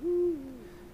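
A single deep, resonant hoot of a Eurasian eagle-owl, loud at first, then trailing off into a softer, lower tail with no other sounds around it.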